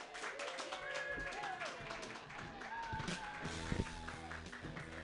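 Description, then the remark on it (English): An audience at the Mutiny Radio Comedy Festival claps steadily for several seconds for the next comedian, a dense wash of hand claps mixed with scattered voices and cheers, moderately loud. “Clap your hands together for”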